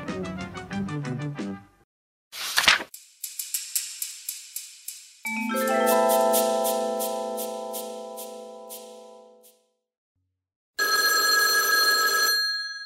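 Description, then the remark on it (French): A telephone at Charlie Hebdo rings in several distinct bursts before its answering machine picks up, a mix of bell-like and electronic ringing tones with brief pauses between them, loud with no voices. “Bonjour, vous êtes bien sûr le répondeur de Charlie Hebdo, veuillez laisser un message après le signal sonore.”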